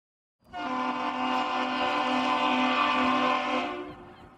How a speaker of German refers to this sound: Das war ein Schiffshorn. Ich weiß jetzt nicht, ob vom von mir intendierten Originalschauplatz. Ähm, es klang jetzt so ein bisschen nach Ostsee mit Möwen.